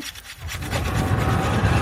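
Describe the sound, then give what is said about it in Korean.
Ice being scraped and dug out at a ski resort: a steady, gritty rasping made of quick repeated strokes, starting softer and growing louder and denser over two seconds, with no voices. “어, 뭔가 얼음 파내는 소리 같은데.”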